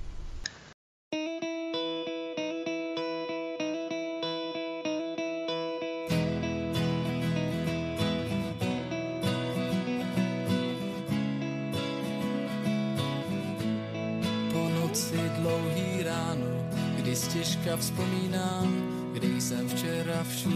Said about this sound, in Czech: Dobře, tak dáme další písničku a ano, po písničce se zase uslyšíme.